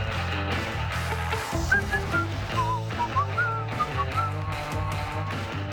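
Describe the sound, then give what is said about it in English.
A bright whistled theme tune glides and trills over a steady instrumental backing with a firm bass line, playing continuously at moderate loudness with no one talking. “Can't decide if I still like the music.”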